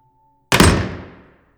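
A door in a hall slams shut with one heavy, sharp bang that rings out and fades over about a second. No voices, just a faint steady hum before the impact.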